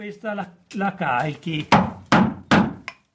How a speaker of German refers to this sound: Der Squerajol schiebt mit einem Kalfatereisen eine Rolle Werk in die Fuge zwischen zwei Planken. Auf das Eisen hämmernd drückt er die Fasern fest in die Fugen.